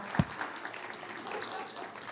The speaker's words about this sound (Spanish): Algunos aplauden, uno sí y uno no.